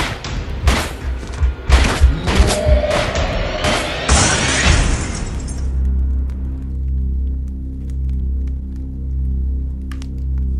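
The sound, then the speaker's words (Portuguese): A rapid, irregular volley of loud gunshots cracks out over several seconds, overlapping one another, then gives way to a steady low rumbling drone that carries on to the end. “Atira!”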